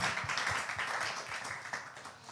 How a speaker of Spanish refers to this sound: Un aplauso se merece eso.